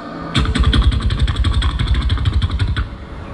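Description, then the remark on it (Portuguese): An army helicopter passing nearby thunders, its rotor beating in rapid, steady pulses over a low engine drone for a few seconds before it stops abruptly. “É barulho de que isso aí? helicóptero.”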